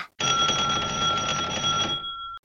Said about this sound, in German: Und wie er sich noch wunderte, klingelte es an der Tür.